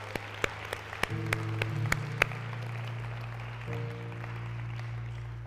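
An audience in a church sanctuary claps in praise in scattered, uneven bursts over a steady low sustained organ-like tone, the claps fading out after a couple of seconds while the held notes continue.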